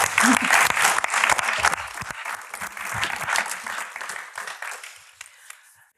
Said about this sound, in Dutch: Dank een warm applaus.